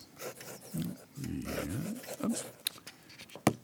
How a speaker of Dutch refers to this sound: Als je goed luistert, hoor je het krassen van zijn deftige vulpen op het papier van zijn grote boek.